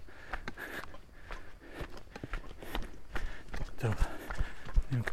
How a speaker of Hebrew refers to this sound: אוי, לא. פרות. חוסמות לי את הדרך.